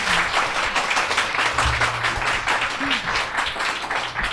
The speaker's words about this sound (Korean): 저희 멤버들에게도 박수 한번 드립니다.